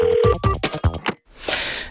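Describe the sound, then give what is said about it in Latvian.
A short burst of telephone ringing with warbling electronic tones repeating in quick pulses, fairly loud, as a listener calls in to a radio studio, followed by a brief hissy noise after a moment of silence. “Mums jau zvana klausītājs.”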